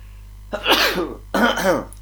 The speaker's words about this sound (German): War, ich war schon voll auf meinen, meinen Nieser konzentriert, der gekommen ist.